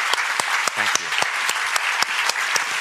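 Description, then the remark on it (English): Sustained, steady applause from an audience for a guest speaker at the end of his talk, a dense wash of many hands clapping with sharp individual claps popping through, and a brief voice murmuring underneath partway through. “And this warm applause is well deserved.”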